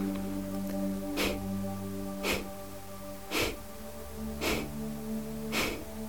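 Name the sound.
rhythmic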